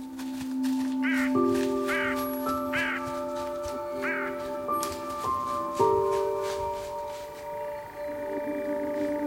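crow cawing

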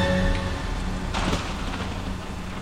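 rain falling

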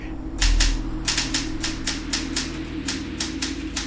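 typing on a typewriter

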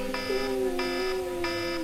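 wake-up alarm ringing

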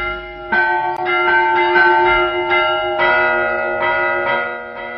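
church bell ringing

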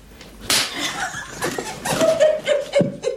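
slap across the face

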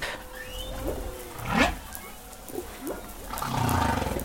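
humpback whale song underwater

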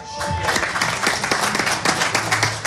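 audience applause

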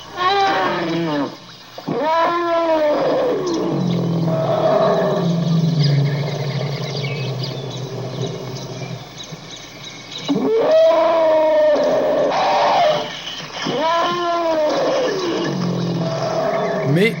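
elephant trumpeting

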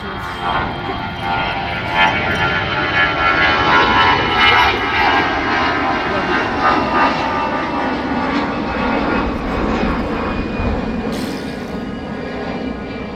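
jet airplane taking off

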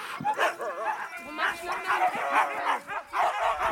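dogs barking and yipping

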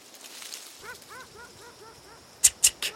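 dog barking and whimpering

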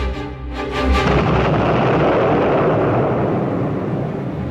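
bomb explosion

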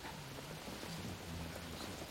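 rain falling

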